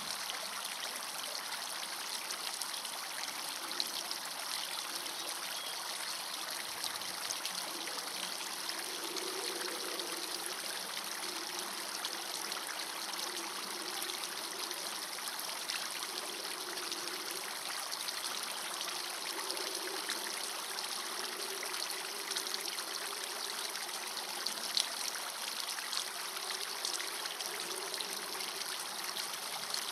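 A steady stream of water from a fountain flows and trickles continuously for the whole stretch, a dense, even babbling wash with no voices, at a constant moderate level.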